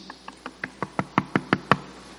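A rapid series of about nine knocks on a door in a steady, even rhythm, growing gradually louder. The knocks are sharp, with no voices.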